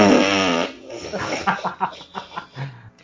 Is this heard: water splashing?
no